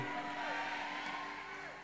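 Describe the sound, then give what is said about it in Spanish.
An audience shouts amen together, many voices blending into a loud, sustained crowd response over a steady held musical tone, lasting under two seconds. “Alguien grite amén.”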